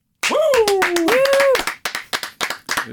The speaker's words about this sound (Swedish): Ovanliga applåder eller? Ja. Är det så?